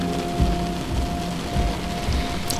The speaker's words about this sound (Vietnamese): Trời thì mưa lất phất Và lạnh tê tái